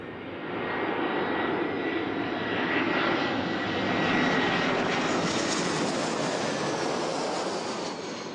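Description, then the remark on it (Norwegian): A steady, loud roar of airplane engines on a flight to New York, a broad droning hum with faint whining tones that swells slightly midway and continues unbroken throughout, with no voices. “Det var det. Det har skjedd. Jeg flyr mot New York.”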